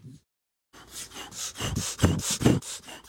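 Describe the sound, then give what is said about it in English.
Heavy, rapid breathing right up against a microphone, a quick run of loud, harsh, rasping breaths in a steady rhythm after a brief silence, with no talking. “Why are you breathing into the microphone like that?”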